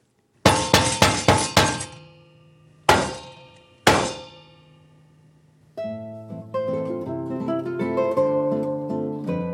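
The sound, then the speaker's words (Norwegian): A rapid burst of five hard metallic knocks as an espresso portafilter is banged against the edge of a waste bin in a coffee house, then two more heavy, ringing knocks after a pause, each decaying with a clanging resonance, followed by music with sustained tones. “han slår espressodingsen så hardt mot kanten av avfallsdunken”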